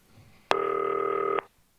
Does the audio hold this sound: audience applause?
no